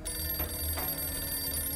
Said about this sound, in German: Das Klingeln des Telefons in der Telefonzelle schlägt sich durch Nasrins Gehörgänge